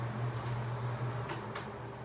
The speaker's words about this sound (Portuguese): Deixa eu só diminuir um pouquinho o ventilador por causa do barulho.